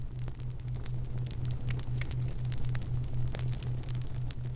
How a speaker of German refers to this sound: Nachdem er sich beruhigt hat, stehst du vor einem riesigen Lagerfeuer.